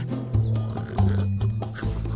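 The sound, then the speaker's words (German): Deep, rumbling snores repeat in a steady rhythm, each a low guttural rasp, with no talking, likely a voice performing the snoring. “Doch gleich darauf hörte man ihn wieder tief schnarchen kroch eine schüchterne kleine Maus aus ihrem Loch.”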